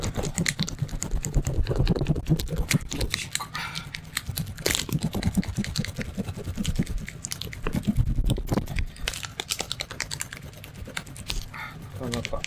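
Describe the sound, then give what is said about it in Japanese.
A block of cheese scraped repeatedly against a grater, a steady run of rough, crisp rasping strokes with brief pauses between them. “チーズを削っている音。”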